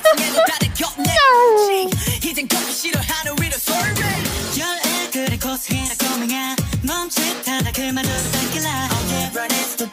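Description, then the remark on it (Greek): A cat lets out a clear, drawn-out meow near the start, falling in pitch, followed by a busy, rhythmic stretch of sound that continues at steady loudness to the end. “Νιάου! ήταν αυτό το νιάουρισμα, ποιος το έκανε!”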